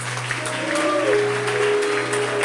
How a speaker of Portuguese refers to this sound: Uma salva de palmas para Deus.